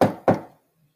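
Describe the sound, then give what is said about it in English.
Two firm knocks on a door in quick succession, each a solid, resonant thud that fades quickly, followed by quiet. No one speaks. “Knock, knock.”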